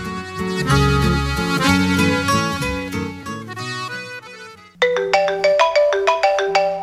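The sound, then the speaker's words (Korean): A melodic phone ringtone of an incoming call plays loudly, starting as a dense musical jingle before switching to a bright, repeating chime pattern of quick pulsed notes. No voices are heard. “어느 날 갑자기 걸려온 전화 한 통.”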